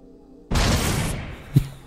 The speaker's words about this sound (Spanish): O si explosión, como todos.